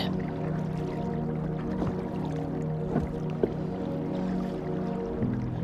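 A small brook babbles gently and steadily at night, a soft continuous trickle with occasional brief splashes and drips, calm, with no voices.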